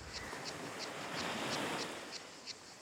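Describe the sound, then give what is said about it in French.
A steady wash of surf rolls onto the shore in Marseille, swelling and easing, with a faint high pulsing chirp of cicadas repeating throughout. No voices are heard. “Euh, les vagues, les cigales, les mouettes. C'est Marseille.”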